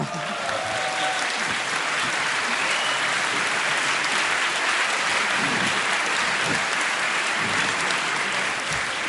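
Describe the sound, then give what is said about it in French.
Steady, dense applause from an audience for the president of the Association of rural mayors of Lyon, a UDI mayor, a broad crackle of many hands clapping at an even loudness for several seconds, with faint voices mixed in underneath. “Mais on l'applaudit quand même.”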